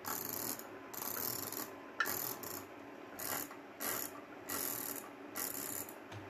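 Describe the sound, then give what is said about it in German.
Rapid computer mouse clicking in repeated bursts, each volley a fast rattling stream of clicks separated by short pauses, moderately quiet with no talking, while playing a computer game. “Man sollte jetzt auch extra meine Maus hören.”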